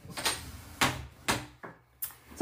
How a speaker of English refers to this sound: We, we got we got interrupted by the door getting opened by a cat.